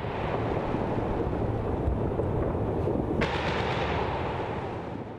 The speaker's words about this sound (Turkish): Havai fişek gösterileriyle aydınlanan boş sokaklar unutulmaz görüntüler oluşturdu.